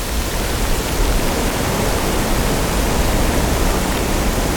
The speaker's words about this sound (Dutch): Iedereen die regelmatig in een bos komt en luistert... die kan inderdaad horen hoe een windvlaag aankomt en verdwijnt.